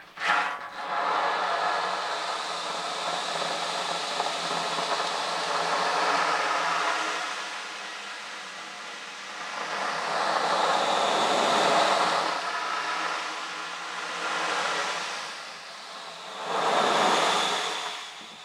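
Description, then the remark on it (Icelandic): An ocean drum is tilted back and forth, its rolling beads making a steady surf-like wash that swells into louder waves every few seconds, with no talking. “Já, já og þá eru hérna sjávatröma”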